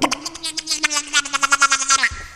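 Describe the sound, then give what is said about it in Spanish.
Someone imitates a duck with their voice, a rapid run of nasal, buzzy quacks pulsing steadily for about two seconds, fairly loud, with no other sounds around it. “Y también este como imitar, no sé, sonidos ambientales, no sé, una gota cuando te truenan los huesos, un pato,”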